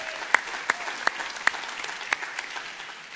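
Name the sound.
audience applause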